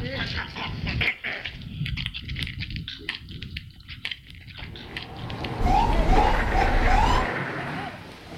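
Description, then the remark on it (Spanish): A dog whimpers and lets out short barks, with a few high, rising yelps near the end, while a man talks over a rumbling background. “Arre, perro, ya esto está bien.”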